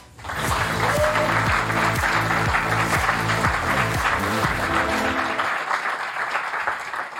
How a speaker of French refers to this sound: un tonnerre d'applaudissements pour Jérémy Perrin